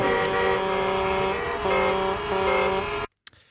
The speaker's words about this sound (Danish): Ja, så det var altså et indblik i, hvordan øh, de her øh, drive-in stand-up shows kommer til at lyde.